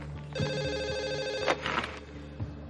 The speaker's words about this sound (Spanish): Un teléfono rojo suena.